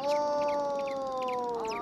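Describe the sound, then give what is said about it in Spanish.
A voice's echo off the mountain: one long, steady tone held for almost two seconds, sliding slightly lower in pitch toward the end, while short high bird chirps repeat faintly above it. “El eco de la montaña es como la vida.”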